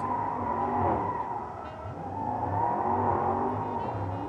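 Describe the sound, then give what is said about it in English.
Two cars rev their engines loudly and continuously before a street race on route 280, a dense, roaring mechanical drone that swells and dips over a few seconds, with no voices. “I think that's some some revving”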